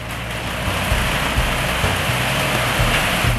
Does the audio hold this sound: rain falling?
yes